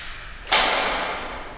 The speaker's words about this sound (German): Und jetzt geht weiter vorne eine Tür auf.